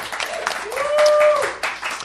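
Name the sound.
audience applause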